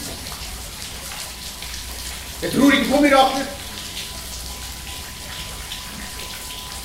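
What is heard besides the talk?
rain falling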